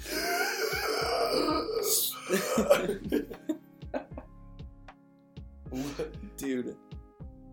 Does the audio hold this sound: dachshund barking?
no